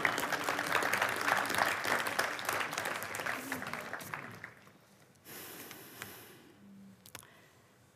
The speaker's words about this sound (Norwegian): Gi en applaus, da.